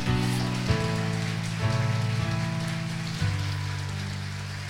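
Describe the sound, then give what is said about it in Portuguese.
An audience at a morning church service applauds the Lord in a steady, dense wash of clapping that holds for several seconds, with sustained keyboard chords shifting underneath and no one speaking. “Só aquele que crê nisso, dê um aplauso ao Senhor essa manhã.”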